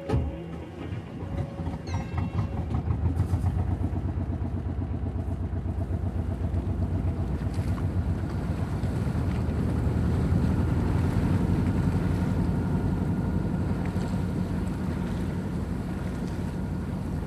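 An old Saab 2G marine diesel engine of some 20-odd horsepower chugs steadily on a 32-foot wooden motorsailer cruising at 7-8 knots along the western channel of the Glomma in Fredrikstad, a low rhythmic thumping that stays loud and continuous throughout, with some wind noise on the microphone and no talking.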